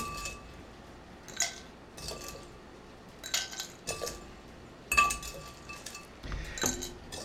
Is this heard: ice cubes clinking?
yes